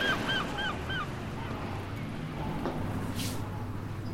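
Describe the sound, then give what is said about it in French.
Seagulls call several times in quick succession, a series of short squawks in the opening second, followed by a steady low background rumble with no one talking. “J'ai rendez-vous avec celle qui vous a fait venir les mouettes.”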